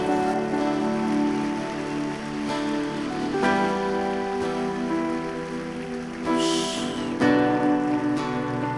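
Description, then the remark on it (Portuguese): A church audience in Brazil applauds the Lord in a steady, sustained wash of clapping that lasts several seconds, mixed with held musical chords playing underneath. “Vamos aplaudir ao Senhor mais uma vez, igreja?”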